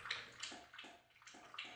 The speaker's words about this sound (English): you only weigh 26 pounds. How much water could you possibly drink?